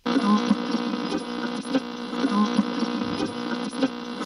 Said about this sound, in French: Alors, un son qui a disparu, c'est celui de la radio. Donc, avant la FM, il y avait les grandes ondes. Et aujourd'hui, il n'y a plus de radio dessus, mais il nous reste le souvenir des sons quand on les recherchait.